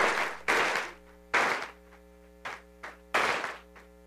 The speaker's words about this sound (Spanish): Dale el aplauso a Él, se lo merece.